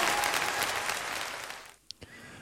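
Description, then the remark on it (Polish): An audience applauds in a dense, sustained burst that gradually fades, trailing off into a couple of scattered final claps near the end. “brawa!”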